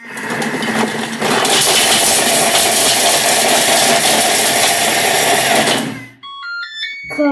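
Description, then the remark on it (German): A kitchen mixer set to speed 8, its lid held down, roars and rattles harshly for about six seconds while chopping Raffaello chocolate pralines, loud and grinding, then cuts off, followed by a short series of high electronic beeps. “Stufe 8. Deckel festhalten, ganz wichtig. Und los geht's.”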